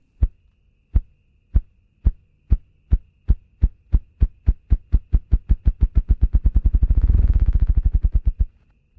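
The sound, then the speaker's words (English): A ruffed grouse drums with its wings: deep, muffled thumps start slow and evenly spaced, then speed up into a rapid, blurred whirr that swells and fades, with no voices present. “Body part wings. Species ruffed grouse.”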